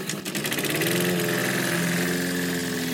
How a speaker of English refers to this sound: Mowers, start your engines.